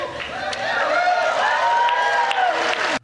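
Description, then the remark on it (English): A large indoor crowd cheers and whoops loudly with scattered clapping, many voices blending into a steady roar for about three seconds before cutting off abruptly. “at the dinner, reporters are cheering after Biden mentions his reelection campaign”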